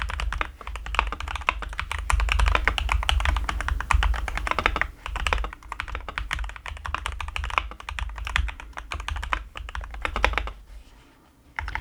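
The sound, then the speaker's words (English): Rapid, continuous typing on a mechanical keyboard, fairly loud, with dense clacking keystrokes and a few brief pauses, no talking. “could you please could you please just continue with the keyboard ASMR?”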